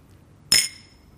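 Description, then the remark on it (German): A single bright clink of wine glasses touching in a toast, fairly loud, with a high ringing tone that fades over a fraction of a second against quiet background. “Hört ihr dieses Geräusch? Moment.”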